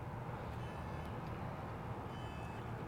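A car alarm sounds, its thin electronic tones sitting faintly above a steady, heavy rumble of passing traffic. No one speaks.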